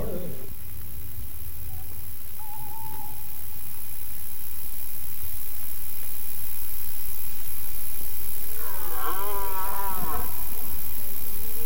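A red deer stag bellows during the rut, a rough, drawn-out roar rising near the end over a low, steady outdoor rumble, with a fainter call earlier on.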